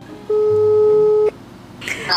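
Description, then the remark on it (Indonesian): A single steady electronic telephone ringing tone of an outgoing call to a friend, about one second long and clear, followed by faint crackly line noise as the call connects. “aku mau coba telepon ya Emily lagi apa ini dia sekarang”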